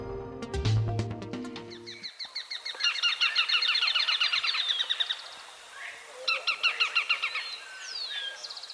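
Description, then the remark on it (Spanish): A slaty spinetail, a bird about 15 centimeters long, recorded in Valle del Cauca, sings clear, delivering two bursts of rapid, dry, repeated chattering notes with a short pause between, after a brief low musical tone at the start. “estamos oyendo al rastrojero o chamicero pizarra, en una grabación captada en Valle del Cauca.”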